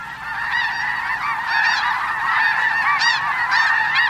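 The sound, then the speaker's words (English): A large flock of snow geese honks continuously, many overlapping calls forming a dense, steady chorus, with no one speaking; the geese are stopping in the seasonal wetlands of the Rainwater Basin during spring migration along the Central Flyway. “In recent years, the number of snow geese stopping in the region during spring has risen dramatically to more than 3 million birds.”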